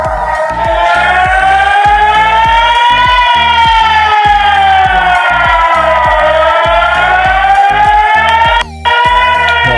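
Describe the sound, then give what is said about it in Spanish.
A loud civil defense siren, sounded at a set hour for a practice drill, wails continuously, its pitch slowly rising and falling in long sweeps over a steady pulsing low hum, with one brief dropout near the end. “Pero ya nos habían advertido que a cierta hora pasaban, tocaban una alarma para que practicaran el simulacro.”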